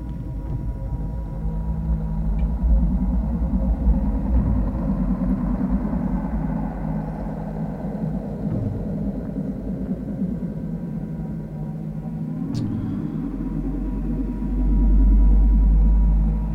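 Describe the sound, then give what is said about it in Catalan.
Electronic music meant to evoke ancient Rome: a dense, low synthesized drone with steady rumbling layers, holding at an even loudness, then swelling deeper near the end, with no voices. “que parla de l'antiguitat fent aquests sorolls electrònics i de més, que és molt típic d'allà de, de, de Roma.”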